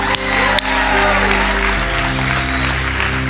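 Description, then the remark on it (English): Loud, steady audience applause for every person who prayed the prayer fills the whole stretch, a dense wash of many hands clapping, with sustained low musical tones humming underneath. “Come on, can we give it up for every person that prayed that prayer?”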